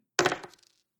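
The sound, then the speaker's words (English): Two twelve-sided dice clatter onto a hard table with a sharp first hit, then a quick run of smaller rattling bounces that fade within about half a second. Fairly loud, with no voices. “So go ahead and roll 2d12 then.”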